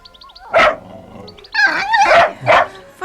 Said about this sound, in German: Um die Ecke bog ein kleiner Hund mit langer Schnauze, buschigem Schwanz und fuchsrotem Fell. Er begrüßte Oskar freundlich.